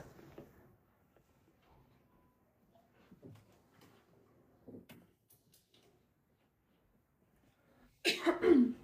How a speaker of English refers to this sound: I'm gonna go close my door because you can hear my brother.